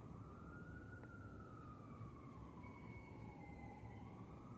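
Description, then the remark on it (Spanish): A distant ambulance siren wails in a slow, continuous rising and falling tone over steady low traffic rumble, with no talking. “Al, maestro de la muerte, como esa ambulancia que se escucha a lo lejos”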